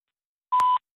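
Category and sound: signal or alarm, voicemail beep tone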